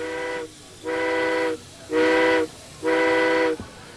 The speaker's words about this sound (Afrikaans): Wanneer 'n treindrywer sy lokomotief tot by die steenkoolmagasin wil rangeer, dis waar die trein vol steenkool gelaai word. Blaas die treindrywer vier kort fluitte.